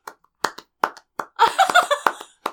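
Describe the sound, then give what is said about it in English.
Sharp hand claps ring out near a microphone one after another at an uneven pace, loud and crisp, with a quick flurry of overlapping claps in the middle before a few more single claps. “You really gotta like clap loud.”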